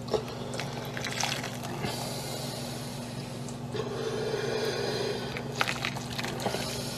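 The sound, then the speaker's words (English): A thin sauce is poured over ribs in a steady, wet trickle with small splashes, fairly quiet, running for several seconds over a constant low background hum. “A little bit of sauce on each one.”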